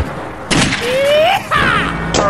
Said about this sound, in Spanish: Estáis identificado con los vaqueros, con los balazos, con la pareja de enamorados.